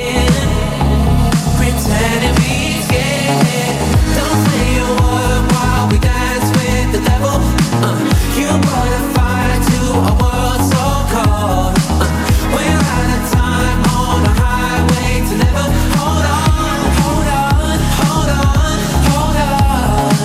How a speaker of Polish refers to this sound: Najciekawsze z nich to chyba mroczne, ale porywające nagranie …, które słyszymy.